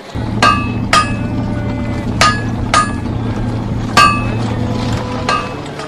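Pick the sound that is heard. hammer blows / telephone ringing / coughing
hammer blows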